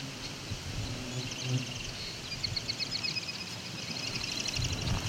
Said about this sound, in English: That Wichita, Wichita call is the common yellowthroat.